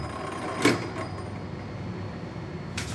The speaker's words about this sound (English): Oh, so you can hear how these are different things. So every minute here, you'll hear the clock mechanism.